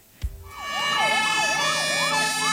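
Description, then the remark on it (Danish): A short jingle built on a wailing emergency siren that sweeps steadily up and down in pitch, starting after a brief thump and playing loudly on its own without talk. “Nu har vi også den her jingle”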